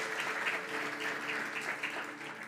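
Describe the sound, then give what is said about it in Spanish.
Loud, sustained applause from an audience at a religious service, clapping for the Lord: a dense, steady wash of clapping that holds at an even level for a few seconds with no voices on top. “Le dan un fuerte aplauso al Señor.”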